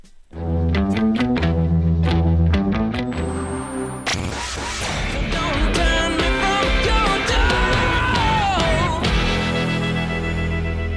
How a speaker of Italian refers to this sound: Ma intanto ci ascoltiamo il nuovo singolo